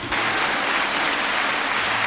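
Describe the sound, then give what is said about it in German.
A stadium crowd applauding at an OSV football match, a dense and steady wash of many hands clapping that blurs into a hiss-like roar, holding at an even loudness throughout with no voices. “Das ist jetzt sofort der Applaus vom OSV mit.”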